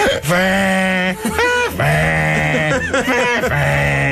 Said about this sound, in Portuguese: Agora, os únicos sons que eu conseguia retirar de uma harmónica eram os da minha pessoa a respirar com ela na boca, que era.